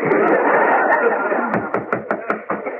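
Someone raps on a door about six times in a quick, even rhythm, the sharp knocks standing out over a steady, murmuring background noise.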